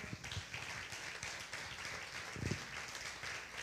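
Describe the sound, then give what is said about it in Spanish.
An audience in a church service applauds the Lord together, a dense, steady wash of many hands clapping that holds for several seconds with brief swells in intensity and no voices over it. “¿Qué le parece dar un fuerte aplauso al Señor?”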